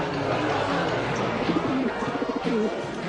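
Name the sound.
dove cooing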